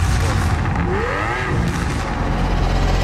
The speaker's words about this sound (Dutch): En dat blijft ook een iconische auto natuurlijk. En vooral de V12.